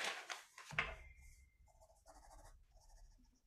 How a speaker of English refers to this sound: This is very interesting for everyone at home. They're hearing maybe nothing, maybe the sounds of a pen striking paper.